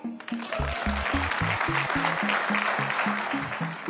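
Loud, enthusiastic applause from a large crowd for Argentina's president Javier Milei at the end of his speech, dense and sustained, with a rhythmic low chant pulsing steadily beneath the clapping.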